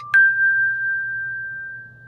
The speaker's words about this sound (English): I had hand chimes that create a very resonant sound uh, in this very bright steel glass environment in the chemotherapy unit.